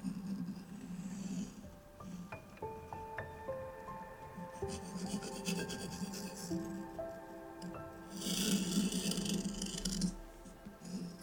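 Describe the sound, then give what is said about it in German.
A pencil quickly sketches a train on paper in about 15 seconds, scratching and rubbing in quick, rasping strokes, with denser bursts of scribbling at the start and again near the end. Soft steady tones hum underneath, and no one speaks. “Wir zeichnen einfach erstmal diesen Zug, diese Eisenbahn in 15 Sekunden.”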